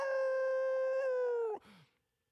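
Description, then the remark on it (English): A single loud, sustained howl holds a steady pitch for about a second and a half, then drops off abruptly into a short, fading yelp. No one speaks. “Rip your shirt off and howl at the moon.”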